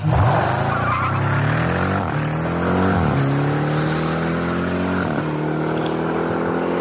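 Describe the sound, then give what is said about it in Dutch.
The 707 hp V8 engine of a Jeep Grand Cherokee Trackhawk revs hard and loud throughout, its deep rumbling tone climbing in pitch and dropping back several times as it shifts up through the gears, with no voices. “Met een dikke V8. Wat bizar lekker deze V8. Klinkt gewoon echt fantastisch.”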